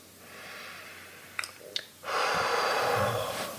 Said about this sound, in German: Ist gut durch die Nase übrigens zu atmen. Man kann aber auch mal durch den Mund ausatmen, seufzen. Aber die Nase ist schon das bevorzugte Nasenorgan.